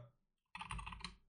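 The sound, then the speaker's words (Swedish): A burst of rapid typing on the quiet version of a top-of-the-line mechanical keyboard, soft and muffled with dense overlapping keystrokes, following a brief near-silent pause; no one speaks. “Det är um, i, det här, i det den versionen vi har så är det en sån här tyst version. Så den, låter, den låter så här.”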